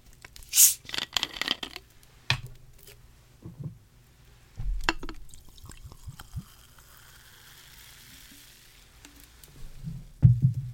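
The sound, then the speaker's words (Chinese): Sparkling water is poured into a glass: a sharp hiss as the bottle opens, a few clinks and taps, then a soft, steady fizzing pour, and a louder knock at the end. No one speaks. “所以我先用气泡水代酒。那我先倒一杯。”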